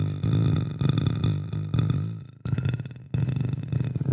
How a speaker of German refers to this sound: Dieses dominante Alpha-Männchen-Brummen macht mich so ein bisschen. Hm. da traue ich mich kaum was zu sagen.